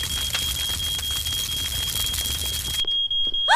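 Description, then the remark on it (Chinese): A smoke alarm in a house on fire during a children's birthday party sounds a steady, shrill high-pitched tone over loud crackling, splintering noise; the crackle drops away near the end, leaving the alarm ringing on its own. “爸爸，爸爸，我们闻到烧焦味了，而且烟雾警报器响了。”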